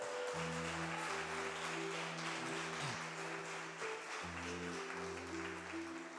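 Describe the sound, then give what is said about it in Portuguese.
An audience applauds the Lord Jesus loudly, a dense steady roar of many hands clapping that fills the whole clip, with a sustained low tone from a keyboard or organ droning underneath. “E se você quer nisso, aplauda o Senhor Jesus bem alto.”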